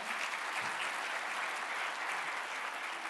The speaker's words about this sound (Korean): 우리 박수로 한번 환영할까요?